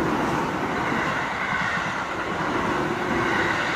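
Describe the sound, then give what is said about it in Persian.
A train rolls into a station with a steady, continuous low rumble and broad mechanical noise, holding at a fairly even loudness throughout, with no voices. “ای مامان فکر کنم قطار نگار رسید”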